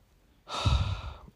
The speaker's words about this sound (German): oh, sorry, Leute, habt ihr das gehört? Mein Vater ist krank. Und er hustet so laut, bei Gott. Also, falls ihr irgendein lautes Husten hört, so im Hintergrund, das ist mein Vater. Der Arme ist krank.